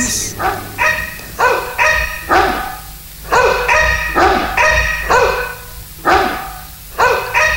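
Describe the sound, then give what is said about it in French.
Two dogs bark together in a rapid, overlapping run of loud, tuneful barks and yelps, almost like a sung duet, with no talking. “Qu'est-ce que c'est que ça Des chiens qui chantent en duo des chiens qui chantent en duo C'est exceptionnel Oui, d'habitude, ils chantent plutôt en solo.”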